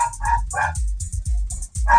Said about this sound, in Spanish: A ver, Entre que mi perro está ladrando y, el internet me está fallando.